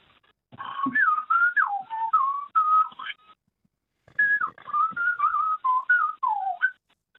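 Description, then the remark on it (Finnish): A caller phoning in from Loppi, Finland whistles an imitation of a night-singing bird's song: two lively phrases of warbling, sliding mid-high notes and quick trills, separated by a short pause, with no talking. “No, musta vastaan on varmaan kaikki kuullut tuolla yömyöhään visertävä, mutta tämmöiseltä se ainakin meikäläisen korvaan kuulosti.”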